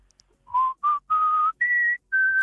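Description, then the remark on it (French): A person whistles a short, bright melody of five clear sustained notes stepping upward in pitch, the theme tune from the Disney children's show La maison des poupées, fairly loud, with brief gaps between phrases and no talking. “beaucoup, beaucoup, beaucoup de joie pour les enfants et beaucoup, beaucoup de, stress pour les parents quand on entend la petite chanson de la, la maison des poupées de Disney.”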